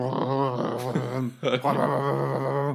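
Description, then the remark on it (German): A voice mimics a huge, heavy, gate-like sliding door that served as a room divider: a loud, sustained droning rumble with a brief break in the middle before the grinding sound resumes. No words are spoken. “Es war nicht eine Tür, es war, sondern es war wirklich ein riesengroße, wie, wie ein Tor. Okay, ja. Und das hat einfach, es war, die, die Tür war der Raumteiler eigentlich.”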